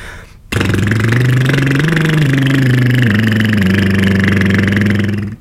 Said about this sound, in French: et après, je fais des petits sons, en bouche fermée, comme ça, regarde. Par exemple, je fais vibrer ma langue.